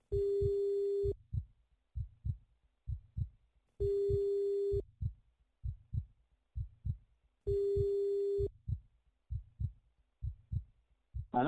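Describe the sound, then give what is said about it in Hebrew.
A phone's ringback tone sounds three times as police call a suspect's mobile number, each a steady hum-like beep of about a second separated by pauses, over a low, rhythmic heartbeat-like thumping that continues throughout. “כדי להיות בטוחים שאכן מדובר בעומרי, השוטרים מתקשרים למספר הנייד שקיבלו מוקדם יותר מדנה.”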